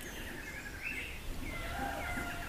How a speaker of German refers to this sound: Och, dieses Vogelgezwitscher, ich könnte es ewig. ich ich glaube, wir lassen das einfach nochmal. Das, das, da kann man sich gar nicht so aufregen, ne? wenn die Vögel so nett im Hintergrund zwitschern.